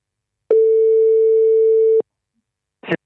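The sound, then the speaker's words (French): A single steady, mid-pitched telephone ringing tone sounds for about a second and a half during a call to Sélection Photo Vidéo, a photo shop in Paris, followed by silence and then a brief burst of noise like the line picking up. “On l'appelle tout de suite pour avoir un peu son point de vue sur tout ça.”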